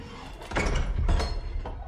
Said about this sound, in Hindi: राकेश जल्दी से भागता हुआ रूम नंबर 1101 के सामने पहुंचता है लेकिन वो दरवाजा खटखटा पाए उससे पहले ही दरवाजा खुल जाता है